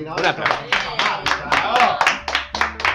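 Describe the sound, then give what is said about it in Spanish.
Hand clapping in a radio studio, about eight sharp claps in a steady, fairly quick rhythm, with a voice talking softly underneath. “les mandamos un saludo a todos un aplauso de piel estamos acá dando en la radio a la coordinadora de la marcha y a todos los colectivos”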